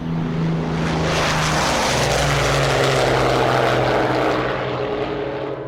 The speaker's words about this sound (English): Eisenhower was at Greenham Common to watch the 101st depart. Kay Summersby said he'd tears in his eyes as he watched the planes take off at 10 second intervals.